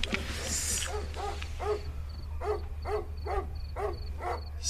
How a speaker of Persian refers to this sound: سگ از تو خونه هست؟